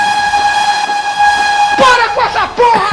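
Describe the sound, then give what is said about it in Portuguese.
Desks and chairs dragged across a classroom floor: a long, steady squealing screech, then a burst of several wavering, overlapping scrapes, loud, with no talking. “eu odeio, eu não suporto que você, numa sala de aula, fique arrastando mesa e cadeira.”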